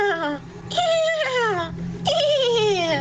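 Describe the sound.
A voice imitates a horse's whinny: three high, quavering cries that slide downward in pitch, fairly loud, with no talking alongside.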